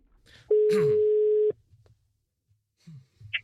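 A single loud, steady telephone ringing tone lasting about a second as a call is placed to Rune Lykkeberg, editor-in-chief of Dagbladet Information, followed by quiet pauses and faint rustling and handling noises, with no talking.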